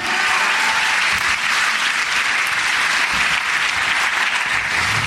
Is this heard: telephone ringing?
no